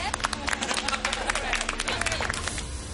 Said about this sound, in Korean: 박수로 강연을 시작하겠습니다.